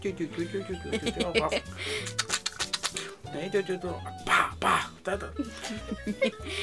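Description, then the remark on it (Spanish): A voice imitates kneading dough by hand, a string of wet slapping, squelching mouth noises and short breathy bursts, fairly loud, mixed with voiced grunting sounds and brief rapid clicks. “Sonido de amasar.”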